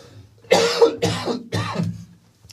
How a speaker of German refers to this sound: Ich muss einmal ganz kurz husten.